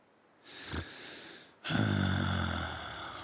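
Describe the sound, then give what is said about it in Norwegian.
A deep, noisy breath drawn in for about a second, then released as a long, voiced, groaning sigh. No one speaks. “… trekker pusten djupt.”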